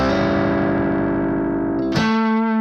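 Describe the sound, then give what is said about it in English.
A heavily distorted electric guitar holds a buzzing, sustained note, then snaps to a new, higher-sounding note near the end in a hammer-on, played right after barring notes at the seventh fret. The tone rings on afterward. No voices. “Then barring the notes at the seventh fret then dropping right into our hammer on.”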